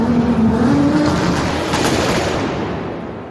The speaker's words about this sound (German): Gib Gas, mal die Leute warten doch. Zündung!